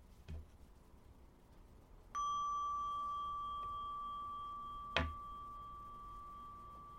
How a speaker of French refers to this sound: restons encore quelques instants avec notre souffle jusqu'au tintement de la cloche de méditation qui marquera la fin de cette pratique.